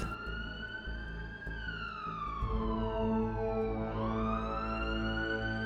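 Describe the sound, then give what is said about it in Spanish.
An ambulance siren wails loudly and steadily as the ambulance drives away through city streets, its tone sliding slowly down and then back up, over a low rumbling engine or traffic noise, with no voices. “Y la ambulancia se perdió en las innumerables calles de la ciudad.”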